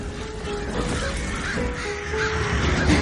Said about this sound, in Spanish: Corre hacia las llamas perseguida por los cuervos. Coge una gran rama ardiendo y la agita ante los pájaros.